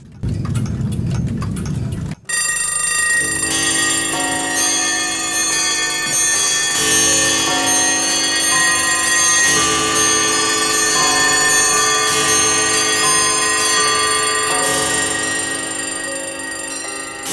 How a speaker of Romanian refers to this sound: începând cu un cor de ceasuri. Acestea au fost înregistrate, unul câte unul, de … în diferite magazine de antichități din Londra și apoi sincronizate împreună.